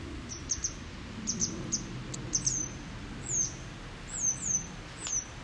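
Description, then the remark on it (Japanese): A parent bird, one of a pair, calls over and over with sharp, high-pitched chirps, some in quick doubled bursts and some slurring downward, at very close range, above a steady low outdoor rumble, flying around a person to keep them away from its chick hidden in the thicket. “いや必死ですね親を思う気持ちっていうのはもう人も鳥も一緒っていうことですかね”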